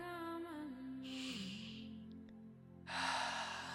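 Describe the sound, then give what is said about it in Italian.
Two slow, deep breaths, a long airy inhale followed later by a fuller exhale, over a soft, steady musical drone, with no talking. “Respira insieme a me.”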